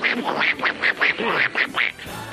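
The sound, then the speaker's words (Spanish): A person imitates a cartoon duck that cannot talk, letting out a quick run of about eight nasal, buzzy quacks in close succession, loud, with no other talking. “un, pato que no sabe hablar, que lo único que hace es...”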